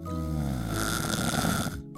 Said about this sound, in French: Toutes les deux, des fois, elles se racontaient des histoires, et puis de temps en temps, Charlotte ronflait.